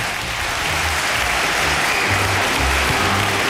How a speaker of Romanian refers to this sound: Aplauze încă o dată